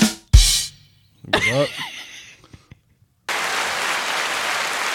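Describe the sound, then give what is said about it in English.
A couple of sharp noisy bursts and some whooping, cheering voices give way to a steady wash of crowd applause that holds at an even, fairly loud level to the end. “Applause for you being right.”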